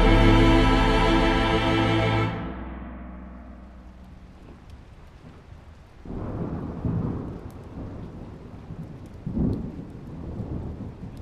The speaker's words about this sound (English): I sit in the library of the Miskatonic University, Arkham, Essex County, Massachusetts. A thunderstorm pommels the outside of the building with its violence and rain, but the library's hearth protects us from the elements with a comfortable fire.